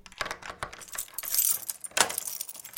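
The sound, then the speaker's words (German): Keys jangle and a lock clicks as a house front door is unlocked and pushed open, a busy flurry of metallic rattles and clinks lasting a few seconds with no voices. “Und tatsächlich, die Haustüre geht auf”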